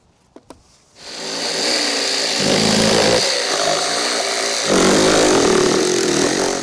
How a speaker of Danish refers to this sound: Mit sæde, det har et helt bræt foran, og så skal jeg have skåret dem bag det fjerde bræt her, så passer det til den stol, vi skal lave.